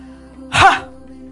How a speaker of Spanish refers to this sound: vamos a respirar profundamente. Aguantamos la respiración y vamos a explotar, como si fuera un cañón la respiración.